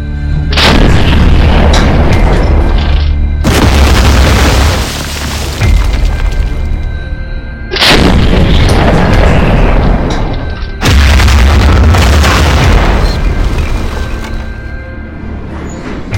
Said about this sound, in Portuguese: Os norte-americanos ficaram então presos em um bolsão, sendo pressionados pela infantaria alemã e pelos pesados bombardeios de artilharia, que incluíam o monstruoso canhão ferroviário K5 e 280 milímetros.